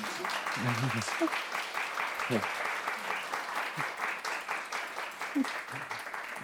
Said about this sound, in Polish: jeżeli mógłbym prosić o małe takie rozgrzewające brawa dla naszej bohaterki.